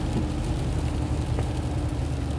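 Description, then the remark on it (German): A steady, low engine drone heard from inside a small blue Golf car, constant rumble with a faint whir on top and no voices. “auf jeden Fall der kleine blaue Golf wieder am Start.”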